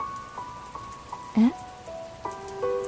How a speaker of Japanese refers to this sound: 健介から体を離すと雨の音が聞こえてきた桜雨